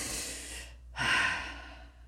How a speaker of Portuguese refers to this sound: A respiração correta calma.